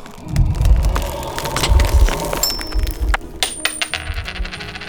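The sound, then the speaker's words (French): A coin drops onto a hard counter, ringing with bright metallic tones and rattling through a quick series of clinks as it bounces and spins down to rest, clear with no voices. “Il se transforme alors lui-même en pièce de monnaie qui retombe sur le comptoir.”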